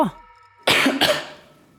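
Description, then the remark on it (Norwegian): Two quick, harsh coughs in close succession, loud, with a raspy throat-clearing quality. They fade into quiet, and no one speaks. “Må vi starte med masker her inne, eller? Hosting og greier.”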